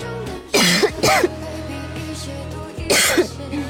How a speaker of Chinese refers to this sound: 哎呀，快喝点水，这这咋还咳嗽上了？